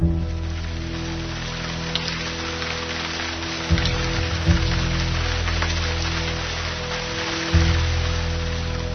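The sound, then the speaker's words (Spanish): Steady, monotonous rain that has not stopped for ten days falls without pause, a dense continuous patter, with a low droning hum underneath and a couple of brief low thumps partway through. No one speaks. “No ha dejado de llover en diez días y el sonido monótono de la lluvia es lo único que escucho.”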